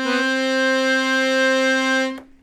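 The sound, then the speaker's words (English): A piano accordion holds a single steady C note, with an octave built into its reeds, for about two seconds, bright and reedy with no vibrato, then stops abruptly with a soft click. “So here we've got, if I just play a C, not, not any vibrato there.”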